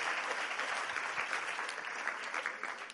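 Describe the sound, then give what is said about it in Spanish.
An audience applauding Christ in a steady, dense wash of clapping that holds at an even level for the full three seconds, with no voices standing out above it. “Den un aplauso a Cristo.”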